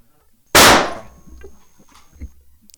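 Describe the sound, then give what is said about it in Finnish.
A single loud gunshot, fired at a person, cracks out sharply and decays over about half a second, followed by a thin high ringing tone and faint low rumbling in an otherwise quiet space. “Ei kukaan tulisi vaatimaan sitä sen jälkeen minulta, joten minä ammun hänet.”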